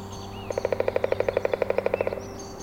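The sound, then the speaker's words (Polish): A woodpecker drums on a tree in a forest in the Tatra National Park in early May, in a fast, even burst of about twenty sharp knocks lasting under two seconds, with faint birdsong and a steady low hum in the background. “To dzięcioł, a raczej dzięcioły, bo w Tatrzańskim Parku Narodowym żyje kilka gatunków tych ptaków, które najsilniej związane są z drzewami, a także z martwym drewnem.”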